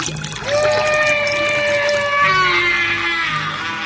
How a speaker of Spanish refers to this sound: Destapé los pesados garrafones y vertí el corrosivo contenido uno a uno sobre aquella increíble anormalidad cuyo gigantesco codo había visto.